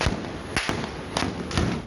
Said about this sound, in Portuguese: Vários tiros, carro voltando de ré aqui, ó. A ação que parou a região de Campinas, no estado de São Paulo, três criminosos acabaram mortos e cinco pessoas ficaram feridas.